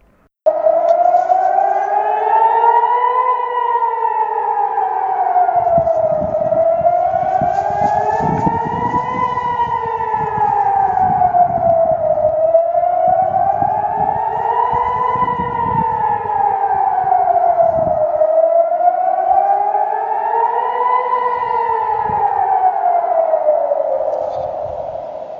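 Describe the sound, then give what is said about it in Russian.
A loud air raid siren in southern Israel near the Gaza Strip, sounding because rockets are incoming, wails continuously, its pitch rising and falling in slow, regular cycles roughly every five or six seconds, with a low rumbling undercurrent and no voices. “Вот то, что вы сейчас услышали, это сигнал воздушной тревоги.”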